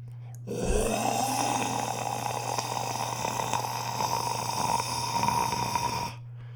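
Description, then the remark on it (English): A voice imitates a dragon breathing fire: one long, rough, roaring exhale that rumbles and hisses steadily for about five seconds, fairly loud, then cuts off. “That was with my fire breathing.”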